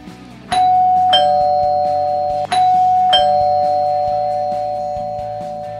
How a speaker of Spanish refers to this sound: Ah, pará, pará. Me tocan el timbre. Se ve que hay más invitados en esta fiesta.